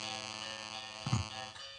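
A mobile phone buzzes with a steady, harsh electronic drone that runs nonstop for about two seconds, with a brief low thump midway. Fairly quiet, with no talking.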